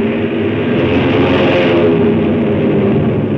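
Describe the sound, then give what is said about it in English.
A steady, loud engine drone with a rough mechanical rumble, swelling slightly in the middle as if revving up, like a small propeller plane whose motor has caught as it is turned into the wind for takeoff. “The motor's caught, and I nosed her into the wind just as the four Chinese on the ground made a dash for the plane.”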